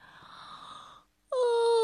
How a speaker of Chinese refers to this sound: 巴尼趴在床上看着看着，疲倦的打了个大大的哈欠。